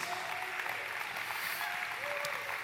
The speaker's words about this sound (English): Yeah, give it up for Rory Green here.